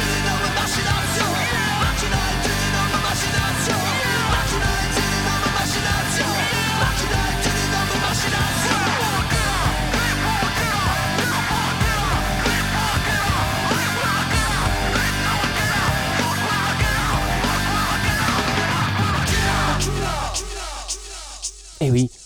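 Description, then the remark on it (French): A loud French rap rock track, from a Parisian band's 1995 debut album, plays with shouted vocals over dense, distorted guitars and a pounding, steady beat, before the music cuts off abruptly just before the end. “le rap rock avait aussi son représentant en France.”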